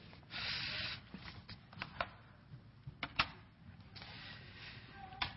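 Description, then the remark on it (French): Dry rustling of paper sheets being shuffled and handled, with a few crisp crackling bursts and sharp little taps scattered over several seconds, no voices. “Et j'aurais besoin de mes feuilles.”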